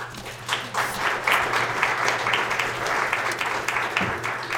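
An audience applauds steadily for several seconds, a dense wash of many hands clapping at an even, sustained level with a low hum underneath, no one speaking.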